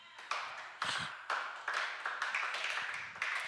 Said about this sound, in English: Yes, if you're clapping, clap.